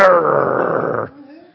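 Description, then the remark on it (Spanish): A person imitates a dog growling over a bone when someone comes near: a loud, rough, sustained snarl lasting about a second, then trailing off into a quieter, breathy rumble. “Ustedes nunca han visto un perro cuando agarra el hueso y te le acercas.”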